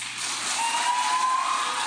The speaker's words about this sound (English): And you hear a little pop of applause there at the end.